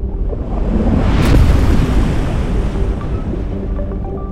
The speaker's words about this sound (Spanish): Y en eso inmediatamente llega una ola gigante, agarra la cabaña y la tira al mar.